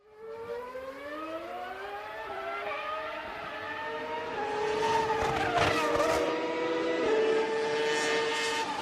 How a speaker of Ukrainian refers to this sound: Гуркіт мотору та писк шин розриває тишу, яка нависла над автотреком. Трибуни завмерли й жадібно дивляться на автівку, яка красиво, плавно та швидко проходить повороти в контрольованому заносі.